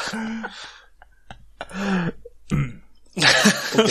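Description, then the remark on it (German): Several subdued, restrained throat clearings come in short separate bursts, the last one louder and raspier, with quiet pauses between them and no talking. “Verhaltenes Räuspern.”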